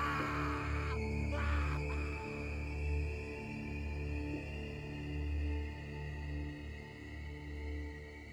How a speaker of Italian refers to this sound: Nelle vostre orecchie risuonano le grida di Starker che si ritrova a vedere ciò con cui dovrà convivere da ora in poi